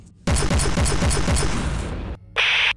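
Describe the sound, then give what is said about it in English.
A rail cannon fires a loud, rapid burst of heavy pulsing blasts for about two seconds, heard in the distance as a shot is taken at pursuing starfighters. After a brief gap comes a short, bright, high-pitched electronic zap. “In the distance, he hears a rail cannon fire as Carrie takes a shot at their pursuers.”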